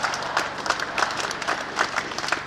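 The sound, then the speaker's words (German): An outdoor crowd at a demonstration in front of the University of Vienna, held by the far-right Identitarians, the FPÖ youth and the Ring freiheitlicher Studierender, applauds and cheers steadily, dense clapping with rhythmic bursts and a few raised voices, moderately loud throughout. “Ihr hört die rechtsextremen Identitären, die FPÖ-Jugend und den Ring freiheitlicher Studierender bei einer Demonstration vor der Universität Wien am vergangenen Freitag.”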